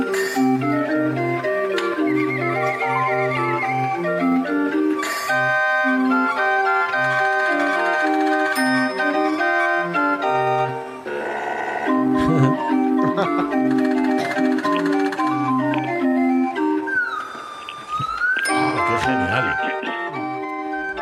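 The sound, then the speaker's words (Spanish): A mechanical orchestrion, a clock-like music box, plays a bright, busy melody with layered tuned voices in several timbres sounding like an orchestra and steady accompaniment, loud, running continuously for about twenty seconds with no talking. “este tiene varios timbres y, suena como una orquesta, sí señor. Sí, eh, claro, por eso ya entraría dentro de la categoría de un orquestión”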